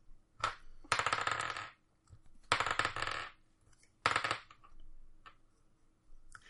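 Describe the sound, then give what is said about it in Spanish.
Three twenty-sided dice rolling, heard as bright rattling clatters on a hard surface in a few separate bursts over several seconds, fairly loud, with no talking. “Voy a tirar tres dados de 20.”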